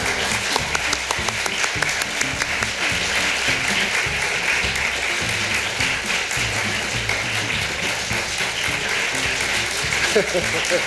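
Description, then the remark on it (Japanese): Sustained audience applause welcoming a guest at a public recording of the Hokkaido radio gospel program Yoru no Hikari, a dense, even wash of clapping that keeps going without letup for about eleven seconds, with faint voices mixed in beneath it. “全然鳴りやまない拍手が”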